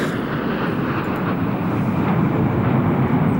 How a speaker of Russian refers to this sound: МиГ-29 СМТ эм – это четверка модернизированных истребителей